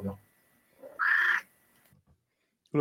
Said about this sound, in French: C'est le chat. C'est le chat du podcast.